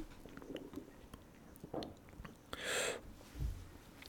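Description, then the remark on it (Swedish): Mouth noises as someone takes a sip of water: a soft slurp, a breathy gulp and a low swallow, with small wet clicks, heard alone and quietly. “Jag var tvungen att ta mig en klunk här av vatten.”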